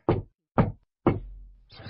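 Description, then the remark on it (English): Three solid knocks on a wooden front door, evenly spaced about half a second apart, fairly loud, each with a short dull thud and quick decay. “Knock, knock, knock knocking at our little front door.”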